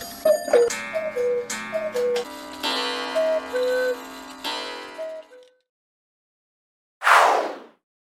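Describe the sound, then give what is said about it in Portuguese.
A cuckoo clock chimes a bright, melodic run of tones for about five seconds, followed by silence and then a short, sharp whooshing burst. No one speaks. “Foi assim que surgiram os vários modelos de relógios cuco.”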